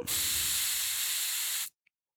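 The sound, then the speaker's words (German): A steady hiss of a fine mist of chilled thermal water sprayed onto a face, lasting about a second and a half, then cutting off abruptly, followed by a tiny faint click. “Ich sprühe mich mal kurz damit ein bisschen ein.”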